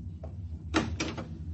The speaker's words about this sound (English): Now, that must be the matron with the woman. Open the door.